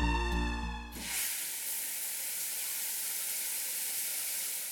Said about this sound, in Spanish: Dentro del baño del segundo piso de su casa, Jung Mi abrió la regadera dispuesta a bañarse.